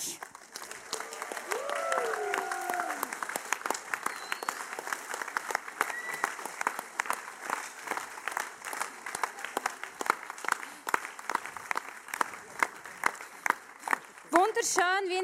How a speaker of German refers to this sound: Und ja, wir geben euch einen riesigen Applaus mit euren Geräten.